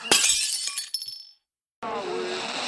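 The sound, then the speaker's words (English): A plate smashes with a loud, bright crash, shards clattering and scattering for about a second before cutting to silence, followed by a steady hiss with faint murmuring. “I could smash a plate though.”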